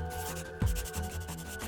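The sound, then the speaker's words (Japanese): A police superintendent's pen scratches rapidly across paper in quick, repeated strokes that gather speed, fairly soft, with a brief dull knock partway through and no voices. “警視に走らせるペンの勢いが増してくる。”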